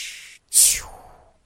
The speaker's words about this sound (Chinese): 变成了气球的气鼓鼓王子居然漏气了，这下可好了，他像个火箭一样在天空中到处乱飞